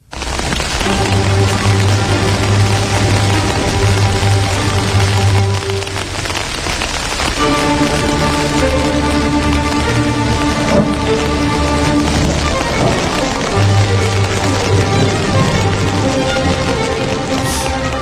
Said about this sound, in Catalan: Comença a ploure a bots i a barrals aquí a Territori 17